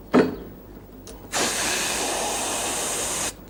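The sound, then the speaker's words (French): A voice imitates all three pneumatic doors of a trolleybus opening at once: a brief click, then a sustained, loud air hiss lasting about two seconds before cutting off abruptly. “Ensuite, euh, si vous ouvrez toutes les portes à la fois, ça fait comme ça.”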